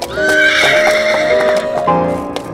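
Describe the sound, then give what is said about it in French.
A harnessed cart horse takes fright, stumbles and collapses, letting out a loud, drawn-out whinny while its hooves clatter and scrape unevenly beneath. No one speaks. “Rosa prend peur, trébuche et s'effondre dans un grand hennissement”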